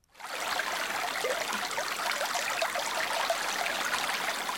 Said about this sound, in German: Ein kleines Flüsschen, gut drei Meter breit. Das Bett nicht einmal einen halben Meter tief. Das bräunliche Wasser strömt träge voran. Ein wenig Schaum treibt auf der Oberfläche. Die Ufer auf beiden Seiten von Bäumen gesäumt.